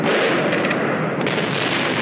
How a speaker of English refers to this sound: So we fire off a bunch of bunker buster munitions and cruise missiles right at the target.